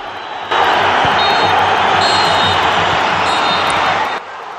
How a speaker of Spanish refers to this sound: vamos a escucharlo, a ver si yo lo voy a escuchar por primera vez junto a ustedes en la radio. y Se a escuchar los pitidos de Gil Manzano y cómo en la grada se puede escuchar gol o el lamento de que han hecho un gol. A ver si lo escuchamos.